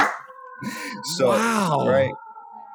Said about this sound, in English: That's that's amazing. That happens all the time. So yeah, I mean that's a fire truck.